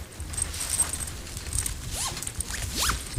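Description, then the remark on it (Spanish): A backpack zipper rasps open in a few quick scratchy pulls, followed by soft rustling and handling sounds as an unnamed object is placed inside for a guessing game, with no talking. “Voy a depositar una cosa dentro de la mochila, ya está dentro, ya tienes que adivinar qué acabo de meter.”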